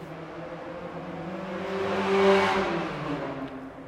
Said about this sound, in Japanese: バイクの騒音大変失礼いたしました